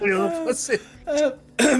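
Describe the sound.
A couple of short, rough coughs break through close up, mixed with voiced sounds like talking or laughter between them.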